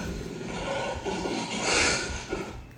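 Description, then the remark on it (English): A person imitates a lion's roar with a raspy, growling voice, one sustained rumble nearly three seconds long that swells to a harsh peak near the end before trailing off. “Oh, y'all hear my lion?”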